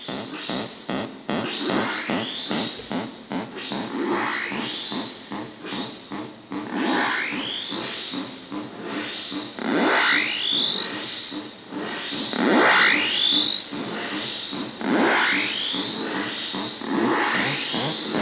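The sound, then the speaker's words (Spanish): A sound art piece of sounding water faucets made by Lugán in 1972 and presented at the 1973 São Paulo Biennial: dense, steady electronic tones with repeated upward-sweeping whistles about every two seconds over a buzzing, distorted bed, with no talking. “La primera son los grifos sonoros que eh, Lugán realizó en 1972, cinco están expuestos allí, y que presentó en la Bienal de Sao Paulo del año 73.”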